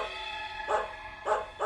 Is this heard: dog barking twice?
yes